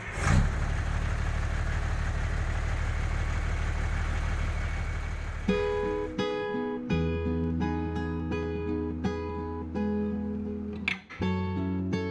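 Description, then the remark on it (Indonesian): A heavy truck engine rumbles steadily for several seconds as the truck carries a group of hikers toward the village of Ranupani, its low drone filling the sound before music with sustained, stepped tones takes over for the rest. “Karena jumlah rombongan kami yang cukup banyak, kami terpaksa melanjutkan perjalanan menuju desa Ranupani menggunakan truk.”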